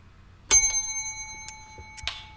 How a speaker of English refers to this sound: I guess back to the bell again. All right, you give a ring to the bell